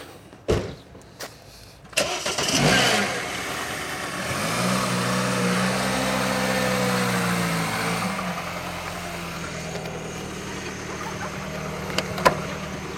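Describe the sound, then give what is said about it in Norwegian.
A small Mini car engine cranks and catches after a couple of sharp clunks, then settles into a steady idle that rises slightly as the car pulls away, fairly loud. “Kjør ut litt, du. Liten mini her.”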